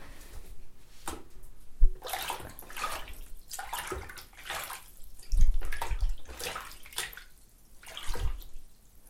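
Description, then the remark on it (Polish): Water sloshes and splashes in a bowl with an object dropped into it, imitating sea waves striking a breakwater; small waves slap against the object in repeated bursts every second or so, fairly loud, with no one speaking. “po co Wam coś wrzuconego do miski, zazwyczaj nad morzem obija się mm, fala, na przykład o falochron. Wtedy jest taki specyficzny dźwięk, więc jeżeli coś wrzucicie, to jesteście w stanie go uzyskać.”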